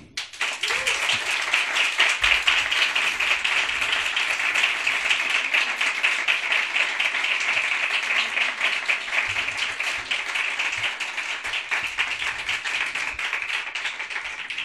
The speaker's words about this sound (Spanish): Y uno tiene el privilegio de decir, y este es el maravilloso aplauso para recibirle, al gran periodista Javier del Pino.